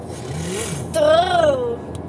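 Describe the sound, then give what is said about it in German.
A voice imitates a car engine revving: one buzzy, strained hum that rises, peaks and slides back down over about a second, fairly loud against quiet background noise. “Ich kann keine Autogeräusche machen.”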